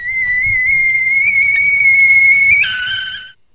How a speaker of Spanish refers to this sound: A ver, miren, es una olla con agua hirviendo, no olla express.